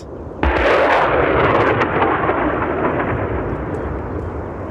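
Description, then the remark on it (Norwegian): A US Marine Corps HIMARS rocket launch during a live-fire exercise held together with vessels from other nations: a sudden blast breaks in, then becomes a loud, sustained, rushing roar that rumbles on and fades only slightly over several seconds. No voices are heard. “I dag skal vi gjennomføre en skarpskyting. Vi skal skyte sammen med noen fartøy fra andre nasjoner. Og vi skal skyte med det amerikanske marinekorpset sin High eh, HIMARS.”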